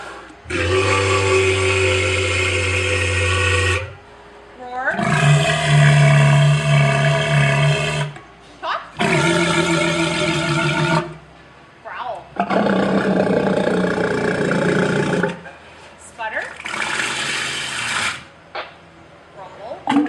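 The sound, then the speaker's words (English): A series of loud, drawn-out walrus calls: deep bellowing roars and harmonic groans, about five long bursts separated by short pauses, prominent with no talking. “this show is brought to you by this week's animal ambassador the walrus. Speak.”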